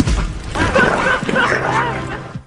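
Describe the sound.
A dog barks and yips in quick, loud bursts, set against a dense, busy background of voices and other sound, in a movie trailer starring Channing Tatum.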